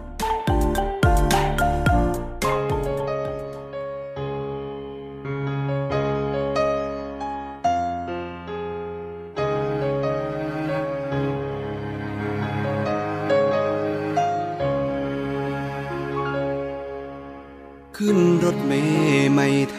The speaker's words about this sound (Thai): คุณผู้ฟังคะช่วงนี้เรามาพักฟังเพลงจากทางรายการกันก่อนแล้วกลับมาพบกันในช่วงหน้าค่ะ